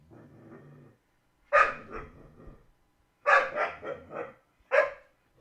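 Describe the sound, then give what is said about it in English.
A pit bull named Bang a bang growls low at first, then lets out loud barks in three bursts, some doubled, with short pauses between, while going after someone's foot. No one speaks. “And that so did not come out because a fucking dog is barking over me.”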